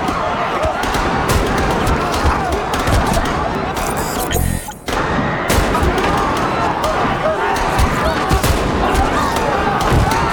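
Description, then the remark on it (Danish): Loud, chaotic gunfire in rapid bursts as people run in panic while being shot, with dense overlapping shots and a brief lull near the middle, mixed with shouting voices throughout. “Nu går alle amok og løber, imens de bliver skudt.”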